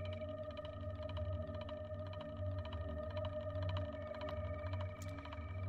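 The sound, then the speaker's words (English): Cricket Voice, a field-recording composition by German Canadian field recordist and acoustic ecologist Hildegard Westerkamp, built from cricket sounds, heard as layered, sustained drone tones with a deep low hum and faint rhythmic pulsing, steady and unbroken throughout with no voices. “What you're hearing at the moment is Cricket Voice by German Canadian field recordist and acoustic ecologist Hildegard Westerkamp.”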